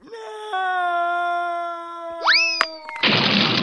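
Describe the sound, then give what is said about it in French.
A long, steady tone gives way to a springy cartoon boing that swoops upward as a falling character bounces off a cliff, followed by a couple of sharp clicks and a loud burst of rushing noise. “Oh non Il est tombé ah, Tiens, c'est bizarre, il rebondit sur la falaise.”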